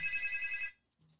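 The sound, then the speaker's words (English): A phone ringtone trills in rapid, warbling pulses for well under a second, then cuts off abruptly, leaving near silence with a faint low murmur after. “There he is. Speak of the devil. Uh, I better. Answer. You want me to answer, or do you answer?”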